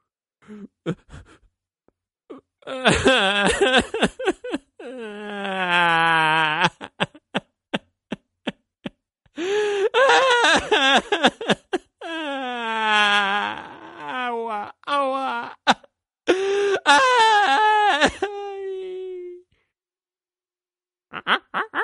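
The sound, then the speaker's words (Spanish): A voice imitates a crocodile crying and wailing under a tree after a monkey hit it on the head: long, wavering sobs broken by choppy gasps and sniffles, loud, with no actual words, trailing off into a drawn-out whimper. “El cocodrilo se quedó allí debajo, cerró los ojos y empezó a llorar.”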